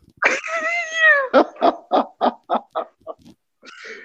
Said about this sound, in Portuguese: ah, bela cuíca carioca.